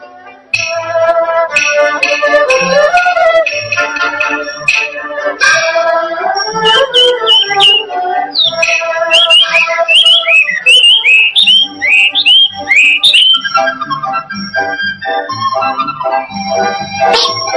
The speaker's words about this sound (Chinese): 这是什么鸟在叫 呢？太子殿下，这就是宫里的画眉鸟。 画眉鸟？ 对。 真好听。